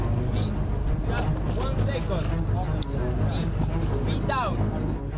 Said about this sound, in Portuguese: Pode ver agora que o outro barco do Geobarant está se aproximando pelo outro lado para garantir que a operação seja segura.